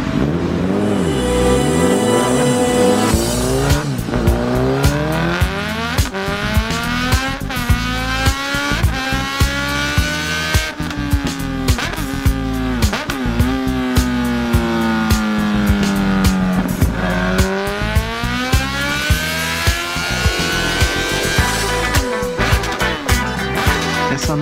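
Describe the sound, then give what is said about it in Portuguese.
A Honda CB1000R Neo Sports Café naked sport motorcycle with a 142-horsepower engine revs hard and accelerates through rising and falling gear sweeps, loud, with sustained high-pitched whine and no speech throughout. “a super máquina que eu escolhi para participar do Máquinas da Pan é a nossa nova Honda CB1000R Neo Sports Café”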